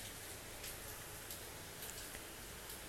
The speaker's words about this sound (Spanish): Muy inspirada de estar aquí en compañía de esta hermosa y refrescante lluvia del monzón, dándote las buenas noticias.